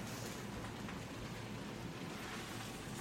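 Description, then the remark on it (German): Food sizzles and crackles steadily in a frying pan on a stove as it is being stirred, a continuous hiss like light rain that holds even throughout, with no voices over it. “Ja, ich rühre übrigens gerade die Pfanne rum und verteile hier die Hälfte auf dem Herd”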